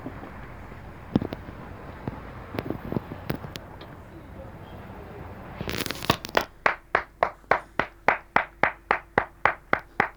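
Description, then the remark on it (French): Applause from balconies in Marseille, recorded from a balcony: scattered claps echo across an open city space, then one pair of hands takes up steady, rhythmic clapping at about two beats per second over faint outdoor background noise. “il y avait eu un enregistrement depuis son, son, son balcon à Marseille. Applaudissements à Marseille.”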